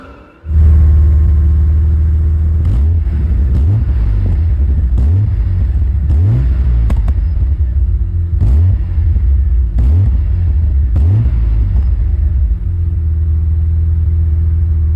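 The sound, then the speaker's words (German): A Lotus Omega's engine runs with a deep, loud rumble, revving up repeatedly in a series of rising pulls over a steady low drone, with no one talking. “Folge 88: Lotus Omega”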